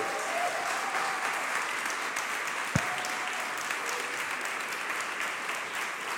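Steady applause from a large crowd, a dense continuous wash of clapping that holds at an even level throughout, with one sharp louder clap or thump partway through.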